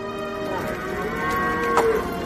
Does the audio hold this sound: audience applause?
no